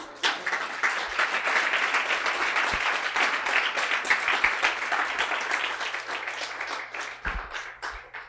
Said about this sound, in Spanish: ¿Cuántos dan un aplauso al Señor?